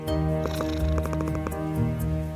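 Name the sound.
cat purring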